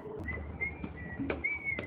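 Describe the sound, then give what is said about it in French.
A boy whistles carefree at the train station in Aix-en-Provence while suitcases roll: a few sustained, high notes in a casual tune, moderately faint, over a steady low rumble with occasional clicks and knocks. “Des valises roulent, un garçon siffle, insouciant.”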